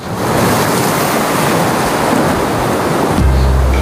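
Loud, full, steady roar of ocean surf with waves washing continuously; near the end a deeper low rumble swells in beneath the crashing water. No voices.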